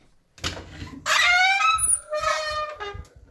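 A door is opened to see who is behind it, creaking with a long, loud, wavering squeak that rises and falls over a couple of seconds, preceded by a soft clunk of the latch.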